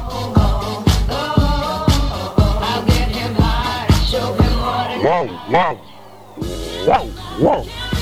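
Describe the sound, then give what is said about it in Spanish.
A person mimics a dog, letting out a series of short, loud, voiced barks in a steady rhythm, then a few rising, yelping barks, with a constant low hum underneath. “¡Guau! ¡Guau! ¿Qué hace? Wow, wow.”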